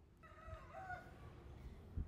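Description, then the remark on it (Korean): A rooster, the number-two rooster at a place stayed at while traveling, crows once, a drawn-out, wavering call against steady outdoor background noise, with a low thump near the end and no voices. “울어라 다가 방금은 두 번째 2인자가 울었어”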